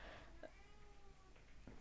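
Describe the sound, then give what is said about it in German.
A voice imitates a cat's meow: a single drawn-out, gliding mew, moderately loud, with a short breathy sound before it and faint background noise. “Miau.”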